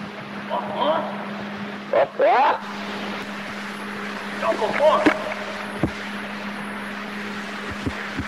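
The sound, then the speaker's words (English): In a remote part of the Sierra Nevada mountains in California, a man shouts several rising, animal-like calls in short bursts, imitating one of the animals to encourage it to keep making sounds, with a steady low motor drone humming underneath throughout. “can be heard in the foreground shouting to imitate one of the animals.”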